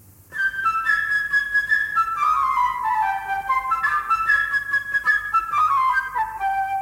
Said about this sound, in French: l'oiseau, ami de Pierre. Ce sera la flûte légère et gazouillante.